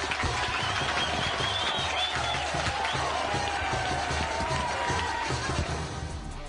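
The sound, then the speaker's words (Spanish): An applause and cheering sound effect: a dense, steady roar of a large crowd cheering and clapping, loud, with shrill whistle-like tones rising above the noise, continuing unbroken for several seconds. “A ver, échenle fanfarrias, porras, cohetes, aplausos, todos griten.”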